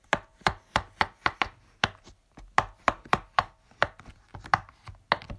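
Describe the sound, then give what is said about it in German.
A quick, uneven series of sharp little pops from silicone bubbles being pressed on a pop-it fidget toy, crisp, around twenty clicks in a row with no talking. “Auf jeden Fall mache ich jetzt mein Geräusch. Das sind die Plopper vom Poppet.”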